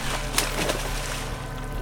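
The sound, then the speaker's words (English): A splash in a river as a large hooked creature rises from the water: a sharp watery burst followed by a smaller slosh, over continuous rushing water and a steady low rumble, with no voices. “Raymond ran back to the cab to get the shotgun when he heard a splash.”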